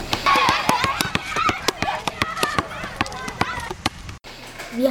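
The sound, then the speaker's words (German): A noisy school yard with many children shouting and chattering as some play football or basketball, while a ball bounces repeatedly and sharply, the thuds coming in quick irregular succession. “Manche Kinder spielen Fußball oder Basketball.”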